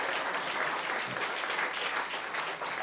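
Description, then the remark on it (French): Steady applause from an audience for three people individually, a dense wash of many hands clapping at an even loudness for the whole few seconds, with no voices standing out. “On vous applaudit individuellement.”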